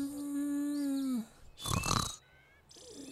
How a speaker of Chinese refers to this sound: 没多久，就传来了一阵又一阵的打呼声。